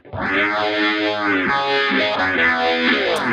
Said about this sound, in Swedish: Och sen så tar vi och bara bombar på med pedalbord och eh, drar upp effekterna på en förstärkare lite och då ah. låter det så här.